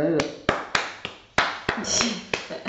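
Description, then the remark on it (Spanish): Rhythmic hand clapping in the palmas style, roughly eight or nine sharp, crisp claps at a fairly steady pace, with a voice murmuring softly beneath the beat. “las palmas así al lado y tú tienes las palmas en la, base rítmica te nuestra.”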